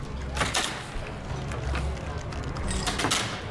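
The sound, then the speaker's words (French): A pub's front door creaks open, its groaning hinge rising in a few drawn-out strains over a low, murky ambience, moderately loud. “À chaque fois qu'il entend la porte d'entrée s'ouvrir, il jette un coup d'œil furtif à la personne qui fait son apparition.”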